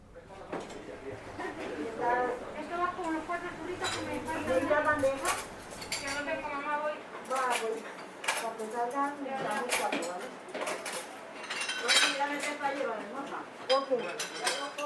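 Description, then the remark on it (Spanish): A crowded, very small churro shop a few metres from the Carabanchel stop, packed on a Sunday, with dishes and cutlery clinking and clattering constantly against a steady murmur of many voices talking over one another. “Hay un local muy pequeñito y a pocos metros de la parada de Carabanchel que los domingos siempre está rebosado.”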